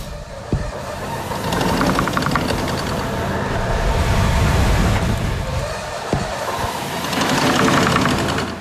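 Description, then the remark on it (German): A foundry blower working air for the furnaces: air is compressed in barrels, pressed down by leather straps, and piped under the floor to supply a blast furnace and two cupola furnaces. A steady, loud mechanical churn with fast rhythmic clatter and a couple of sharp knocks, swelling and easing in waves, with no voices. “Sie haben die Luft dann in den Tonnen, die wird komprimiert, runtergedrückt durch die Lederriemen und ähm, unter unserem Fußboden gehen ähm, Rohre entlang.”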